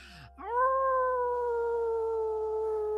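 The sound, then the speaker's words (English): A person howls like a wolf, a single long sustained howl that rises quickly and then holds steady at a loud level with clear harmonics, no talking. “You deep you breathe deep, you join in the howl again with her.”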